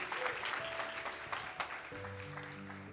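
A church audience applauds to the Lord for a man's life, a dense, steady wash of clapping hands from a crowd. Near the end, sustained keyboard chords begin to sound beneath the applause.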